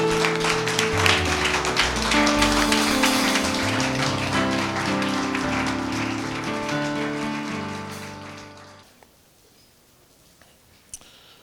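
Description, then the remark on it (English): An audience gives Jesus a mighty hand clap, clapping steadily in a dense, crackling patter over loud sustained keyboard music. Both fade and stop after about nine seconds, leaving near silence. “Let's give Jesus a mighty hand clap.”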